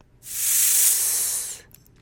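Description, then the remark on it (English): A person makes a long, steady hissing "sss" imitating a snake's hiss to demonstrate the s sound, held for just over a second with an even, breathy sound, then stops. It is fairly loud, with no talking. “Can you imagine the sound that a snake makes when it hisses?”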